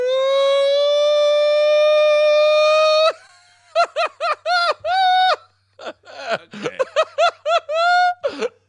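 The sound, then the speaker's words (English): A slowed-down laugh that sounds like a tornado siren: a long, steady, rising wail lasting a few seconds, then a quick run of choppy, pulsing laugh bursts, loud. “Yeah, that's that is sad that we're not sure which one of my laughs is the tornado siren laugh.”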